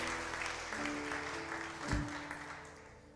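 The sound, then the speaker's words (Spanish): A crowd claps loudly and steadily for a few seconds, a dense wash of hands applauding Christ during a sermon, with a sustained musical tone humming underneath and a brief low thump midway. “Alguien apláudale fuerte.”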